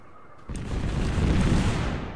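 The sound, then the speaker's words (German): A sudden loud boom of a video game bomb blast from bombs dropped by aircraft, bursting in after a quiet moment and rolling on as a dense, rumbling roar with crackling debris for nearly two seconds. “Stimmt, diese Flugzeuge können ja Bomben abwerfen, das habe ich ganz vergessen.”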